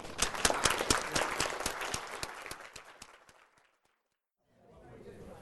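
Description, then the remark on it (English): A roomful of people applauds to thank two speakers, a professor and a guest, before a break, dense overlapping claps, loud at first and steadily thinning out over about three seconds, followed by a brief silence and then low, murmuring room noise. “But before you go to the bar, please join me in thanking”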